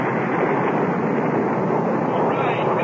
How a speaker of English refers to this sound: 10, nine. Ignition sequence starts. All systems go. Looking good. Five, four, three, two, one, zero. All engines firing.